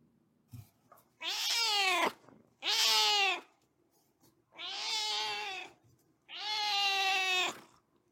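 A cat meows four times, each call long, drawn-out and tonal, separated by short pauses. The meows are fairly loud against a quiet, low background, with no talking.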